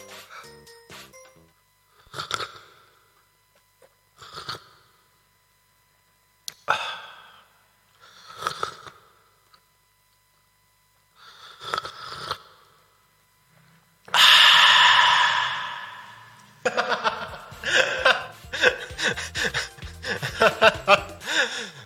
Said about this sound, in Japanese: コメントありがとうございますズズズと美味しそうな音がって言ってるじゃあもうちょっともうちょっとやろうかなズズズといきますよ